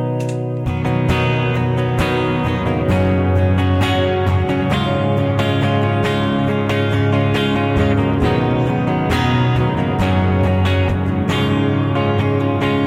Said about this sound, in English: Now I'm just going to switch over to my next preset. Maybe it's a different part of a song that I want a heavier reverb sound for.